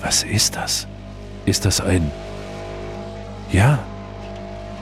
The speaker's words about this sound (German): das ist ein Rasenmäher-Traktor. Und er fährt direkt auf die Jugendlichen zu.